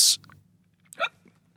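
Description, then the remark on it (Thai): A single sharp, abrupt hiccup with a short voiced gulp, following a brief breathy hiss at the start; otherwise quiet, with no talking. “หลายๆคนบอกว่าให้ดื่มน้ำนะครับ หลายๆคนบอกว่าให้กลั้นหายใจหรือว่าบางคนบอกว่าให้คนที่กำลังฮิกั p นี้ตกใจแล้วเขาจะหยุดฮิกั p นะครับไม่รู้ว่าไหนจริงหรือไม่จริงแต่อย่างไรนะ แต่ที่แน่ๆ นี่คือเสียงของฮิกั p”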